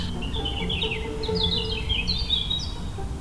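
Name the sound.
european robin singing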